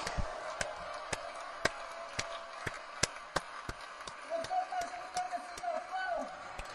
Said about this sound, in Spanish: Tú estás escuchando, esos aplausos son para ti. Esos aplausos son para ti.